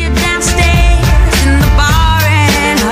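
A loud song built on the Amen Break, a sampled 6-second drum solo, as a breakbeat drum loop, with punchy kick and snare hits driving a quick rhythm beneath a sustained, wavering sung melody and layered instruments.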